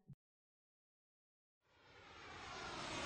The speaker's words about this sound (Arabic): الطائرة تحلق والرحلة مستمرة